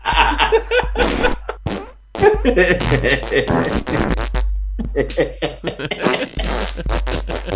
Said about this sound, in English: Three yards in a cloud of fart.